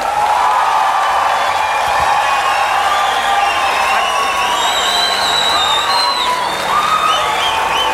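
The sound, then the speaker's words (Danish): A large crowd at the Tinderbox festival applauds and cheers steadily for comedian Jakob Trane, a dense, loud wash of clapping with high whistles and whoops rising above it throughout, no single voice standing out. “Så nu skal I altså lige klappe i jeres hænder og give en kæmpe, kæmpe stor hånd til Jakob Trane.”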